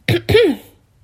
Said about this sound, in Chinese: 对不起，我想要咳嗽。